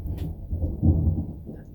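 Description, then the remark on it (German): A deep, rolling rumble of thunder swells to a peak midway and slowly fades, sounding heavy, with no voices present. “Ich liebe Gewitter, außer wenn ich mit dem Fahrrad heimfahren muss.”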